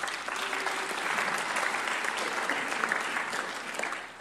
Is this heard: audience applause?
yes